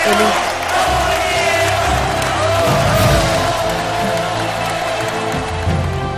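A loud, sustained crowd ovation with cheering and shouting, a dense wall of voices and applause holding steady for several seconds without pause.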